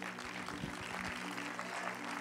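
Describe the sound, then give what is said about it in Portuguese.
An audience claps together to glorify Jesus in a dense, steady round of applause that holds an even loudness throughout, with a faint sustained low tone humming underneath. “Podem tomar os seus lugares e podem glorificar Jesus com as palmas.”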